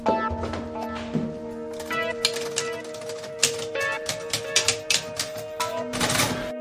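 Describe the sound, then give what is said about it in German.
Keys of an old, slightly sticking typewriter in an Art Nouveau house clack sharply and irregularly, a quick burst of strikes followed by scattered single taps, over a steady low electrical hum. “Alte Schreibmaschine steht ja noch rum.”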